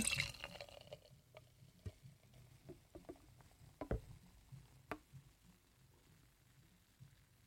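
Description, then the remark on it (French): Beer pours briefly from a can, then the foam settles with soft fizzing and scattered small pops and drips, quiet and without any talking. “j'ai le malheur de mettre mon nez euh, dans la canette”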